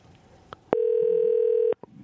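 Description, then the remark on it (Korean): A telephone call being dialed to reach a listener: a few soft clicks, then one steady mid-pitched electronic tone held for about a second before cutting off with another click. No one speaks. “이분 한번 전화를 걸어봐야 되겠네.”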